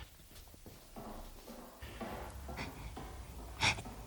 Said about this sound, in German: Ich höre Schritte.